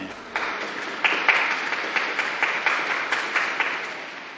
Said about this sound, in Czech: Na závěr setkání papež připomněl dnešní den matek a vyzval k potlesku všem matkám. E non possono mancare le mamme. Un applauso alle mamme.